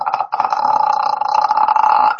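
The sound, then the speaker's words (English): A voice imitates the sound of a car's metal cracking as the car started rolling. It makes a short strained groan, a brief pause, then a long, loud, creaking vocal drone with a rough, pulsing texture and no words. “then it started picking up, and it was actually the sound of metal cracking, and the car actually started.”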